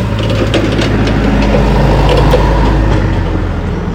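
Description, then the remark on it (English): A forklift truck carrying a big plastic bin at a working fishing port, its engine droning steadily and loudly, with a deep low hum and scattered light rattles and knocks throughout, no voices. “This is a forklift truck carrying a big plastic bin.”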